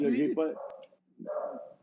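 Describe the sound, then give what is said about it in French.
A dog barks in two short, yelping bursts separated by a brief pause, moderately loud. “C'est pas mon chien qui jappe, c'est vous autres qui avez un chien?”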